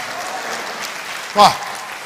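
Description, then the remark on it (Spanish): An audience claps steadily throughout for the Lord, a dense wash of many hands at even loudness, with a brief voice cry rising over the applause near the end. “Déselo fuerte al Señor, hermano.”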